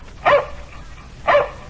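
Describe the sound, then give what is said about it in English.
Two short, sharp barks from Tige, Buster Brown's dog, about a second apart, clear, with quiet background between them and no talking. “That's my dog, Tige.”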